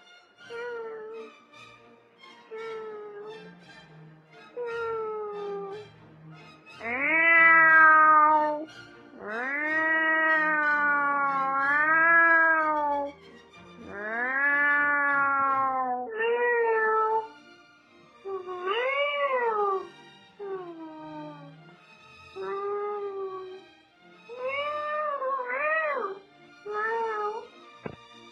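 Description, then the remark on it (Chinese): A person imitates a cat, meowing over and over: a string of loud, drawn-out mews with rising and falling pitch, some long and wailing, others short and quick, with brief pauses between. “我模仿的动物是猫。”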